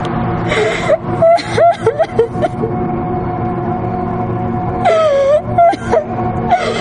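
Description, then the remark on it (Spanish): A woman lying on the floor of a parking lot cries and whimpers in pain from her hip, with strained, wavering sobs and gasps coming in bursts, a pause, then more moaning, fairly loud over a steady low background hum. “Evelyn queda tirada en el suelo del aparcamiento llorando y doliéndose de la cadera que ha chocado con cada escalón mientras la arrastraba.”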